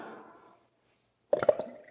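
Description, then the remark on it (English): A gurgle pot glugs as water pours, a quick burst of hollow, bubbly gulps, following a fading splash and a brief silence. No one speaks. “that's my gurgle pot. You like that?”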